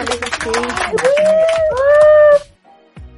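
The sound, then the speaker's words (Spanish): A quick burst of clapping with a high, sustained cheer or whoop rising over it, cutting off abruptly after about two and a half seconds, followed by near silence. “Van a aplauso ahí”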